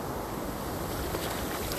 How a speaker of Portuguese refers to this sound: Estou na praia. E aí eu queria entrar no mar, porque, enfim, eu gosto de entrar no mar.